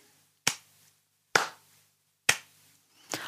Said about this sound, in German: Eine etwas schwierigere Aufgabe wäre, wenn ihr nur die Silben klatscht, zum Beispiel dreimal, und das Kind sucht ein Wort mit drei Silben, zum Beispiel